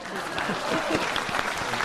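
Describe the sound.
Steady, dense audience applause, many hands clapping at once in a continuous rattling wash, with some voices mixed underneath.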